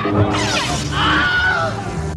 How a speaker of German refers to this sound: Angefangen hat der Schrei wohl als Soundeffekt für den Western Die Teufelsbrigade aus dem Jahr 1951